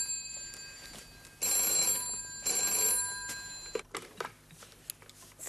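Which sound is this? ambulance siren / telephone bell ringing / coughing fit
telephone bell ringing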